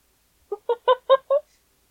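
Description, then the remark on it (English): A child's noisy toy lets out five quick, evenly spaced squawking honks that sound a bit like a clucking hen. The sound is fairly loud, with silence before and after. “This is like the, our fifth take at recording this because my kids keep popping into the room and making noise with their toys oh, on purpose.”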